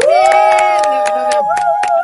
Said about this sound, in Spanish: Bueno, ahora sí, démosle la bienvenida a nuestra invitada. Sí, vamos a hacer el aplauso casero.